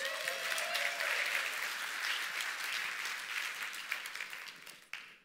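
Sustained applause from a crowd, a dense wash of clapping that holds steady and then thins out toward the end, with a few louder individual claps near the finish.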